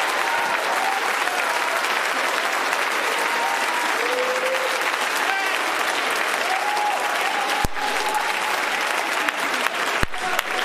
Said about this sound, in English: When you come into the presence, if you believe that, why don't you clap your hands again?